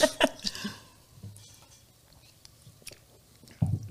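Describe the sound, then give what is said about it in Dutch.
Wet mouth sounds of someone taking a first sip of alcohol-free sparkling wine, a quick cluster of slurps and swallows at first, then quiet with faint lip smacks and a soft breath at the end. “En dan ben ik heel benieuwd naar je eerste slokje. Goede alcoholvrije bubbel.”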